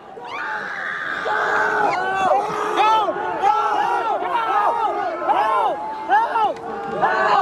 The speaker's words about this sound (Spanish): Son los gritos de desesperación y horror que experimentaron decenas de asistentes aplastados en una estampida humana durante el festival Astro World en Houston, donde murieron ocho personas.